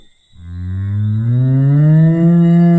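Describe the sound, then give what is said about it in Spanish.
A single long, loud cow moo, starting low and slowly rising in pitch, heard on its own with no talking. “No, no me llores así. Acuérdate de tomar sol todos los días y de mugir a la luna cuando estés triste.”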